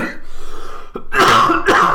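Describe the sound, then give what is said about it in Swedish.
Two harsh, throaty coughs in quick succession, fairly loud, preceded by a low rasping throat sound; no one speaks. The cougher is ill and at home from work. “Jag hostar och...”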